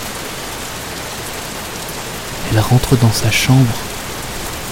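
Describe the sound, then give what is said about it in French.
Steady summer rain on a stormy evening hisses evenly throughout, a constant wash of falling water, while a voice speaks briefly over it in the middle. “Maman n'aime pas qu'on sorte, certains soirs d'orage en été. Quand le tonnerre empire, que la pluie se fait plus dorue”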